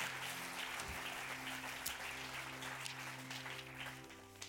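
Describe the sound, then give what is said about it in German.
A steady wash of audience applause for Jesus, many hands clapping continuously at moderate volume for several seconds, with a low sustained tone humming underneath. “Und ähm, zum Schluss, ich werde dir ähm, ja, wirklich einen Applaus für Jesus, wirklich ist so krass.”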